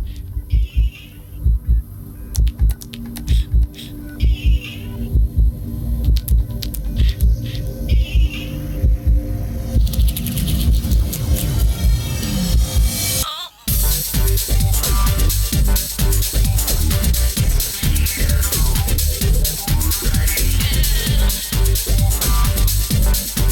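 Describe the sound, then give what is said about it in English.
The vocal opening theme song of the video game Kingdom Hearts plays loudly and continuously, with a steady pulsing low beat under dense layered music and a brief sudden drop out partway through before it surges back. “Uh, so let's go ahead and uh, uh, give the opening to Kingdom Hearts a uh, listen here.”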